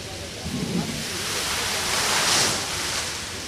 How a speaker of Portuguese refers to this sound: os famosos vulcões eh, d'água que existem eh, no Parque das Nações, eh, que trazem à memória exatamente a exposição Expo 98, não têm os vulcões a funcionar na sua totalidade.